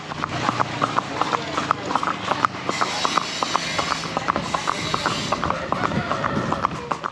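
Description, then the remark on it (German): The hooves of small, agile horses clip-clop steadily at a brisk walking pace, with sharp knocks over a rushing outdoor background with faint voices. “im Ort essen wir zünftig zu Mittag und werden dann abgeholt und zu unseren Pferden geführt.”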